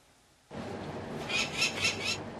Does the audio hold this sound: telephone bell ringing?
no